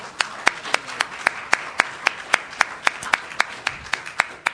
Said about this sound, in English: let's give him a round of applause.